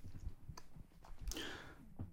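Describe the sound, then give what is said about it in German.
A few sharp, irregular clicks like keys being pressed on a computer keyboard, scattered over two seconds, with a brief brighter swooping tone in the middle and no one speaking. “Eine Tastatur.”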